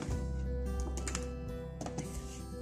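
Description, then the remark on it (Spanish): A few scattered clicks and light clatter from a computer keyboard being moved and tapped, fairly quiet over a steady low electrical hum, with no voices. “¿Necesitas el teclado?”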